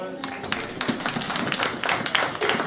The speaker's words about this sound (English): Just a round of applause for her.